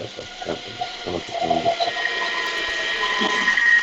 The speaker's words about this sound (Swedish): det är väldigt mycket tunnelbana här. Det är en del av eh, ljudbilden.